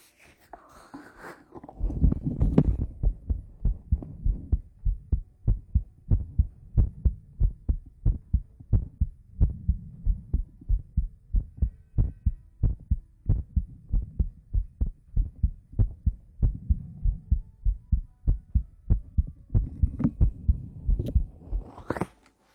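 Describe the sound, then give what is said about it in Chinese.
A woman's steady heartbeat, played to the left ear, thumps low and muffled in a regular double-beat rhythm, continuing for about twenty seconds with no talking over it. “姐姐的心跳给你听”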